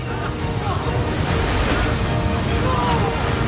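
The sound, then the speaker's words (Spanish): A strong river current carrying barrels rushes loudly and steadily, a dense, unbroken roar of churning water that stays constant from start to finish. “Los barriles avanzan por la fuerte corriente.”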